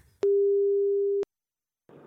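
A single steady telephone ringback tone of an outgoing phone call, a flat mid-pitched beep lasting about a second with sharp clicks at start and end, followed by silence and a brief murmur of voice.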